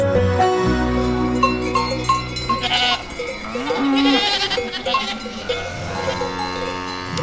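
Many cowbells clank and ring in an irregular, overlapping jangle, with cows and goats on an alpine pasture in the Swiss Alps in summer and an occasional bleat rising above the steady metallic chorus.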